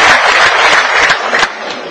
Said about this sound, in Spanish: ¿Aquí hay cubanos? Un aplauso para los cubanos. ¡Wow! Un aplauso para los cubanos.